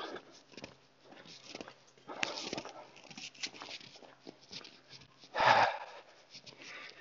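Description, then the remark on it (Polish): A dog snuffles and snorts in short, irregular bursts while shuffling around, with one louder, harsher snort near the end; no one talks. “Eee, więc niech sobie ten piesek pobiega. Ale niech biega z kagańcem.”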